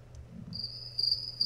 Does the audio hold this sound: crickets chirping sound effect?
yes